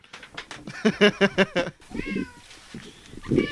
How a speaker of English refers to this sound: Oh wait, hold on a second. My cat is desperately trying to get out.